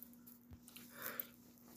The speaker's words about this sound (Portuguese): Parei para beber uma água.